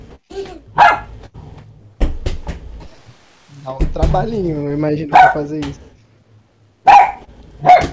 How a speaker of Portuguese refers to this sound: Ó o cachorro gritando aí do lado. O cachorro é teu? É, mano.